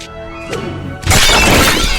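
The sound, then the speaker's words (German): A few light knocks over a steady low hum, then something suddenly shatters into shards with a loud, bright crash that keeps crackling and tinkling to the end. “Hier liegen überall Scherben.”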